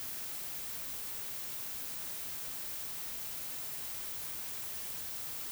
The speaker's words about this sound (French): Mets-toi devant le haut-parleur d'où vient le bruit blanc et regarde-le dans les yeux.